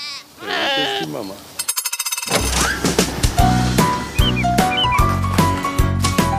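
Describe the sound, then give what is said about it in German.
Heidschnucke ewes and lambs at a Heidschnucke sheep farm in Kreis Paderborn bleat in wavering, quavering calls for the first second or so, then a rapid stuttering pulse gives way to loud music with a heavy bass beat. “Jede Mutter und jedes Lamm erkennt sich am Rufen.”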